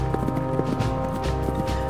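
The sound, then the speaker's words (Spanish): A horse's hooves clip-clop in a quick, steady rhythm, moderately loud, over a sustained musical drone, as a rider travels across the Argentine countryside between two cities. “Cambiaba su caballo en postas descuidadas, edificios tan ruinosos que parecían abandonados, de no ser por los maestros malhumorados que allí administraban los caballos.”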